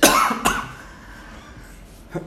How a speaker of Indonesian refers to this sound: batuk-batuk gue